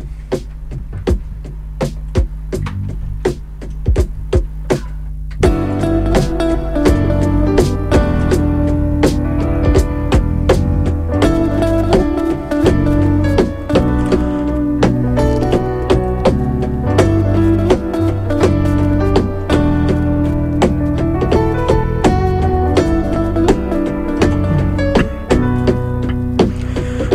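A live band plays a rock song, opening with a sparse rhythmic intro before the full band crashes in at about five seconds and stays loud and driving, with steady drum hits.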